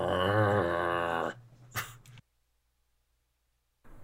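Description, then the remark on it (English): A low, rumbling wolf growl sounds loud for just over a second as guards approach, followed by a brief scuffling noise and then near silence. “the wolf is also, as the guards approach, just growling.”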